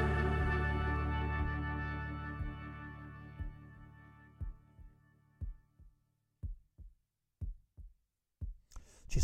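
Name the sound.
heartbeat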